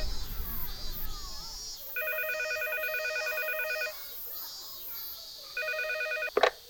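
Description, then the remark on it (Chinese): A telephone ringback tone on a call to the caller's grandmother purrs twice, two long steady electronic rings separated by a pause, over faint background hiss, followed by a sharp click as she picks up. “二二四七九，然后是十 希望是奶奶接到电话”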